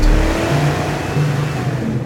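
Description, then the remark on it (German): A car engine runs loud, a steady droning hum with slight rises in pitch as it revs and pulls away. No one speaks. “Tack, tack, Auto fährt.”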